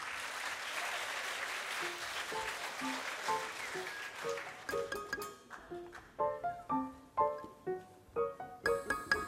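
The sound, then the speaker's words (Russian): An audience applauds steadily for several seconds, recalling a singer, a dense wash of clapping that fades as melodic instrumental music with distinct plucked or struck notes takes over. “Вспоминаем … и аплодируем.”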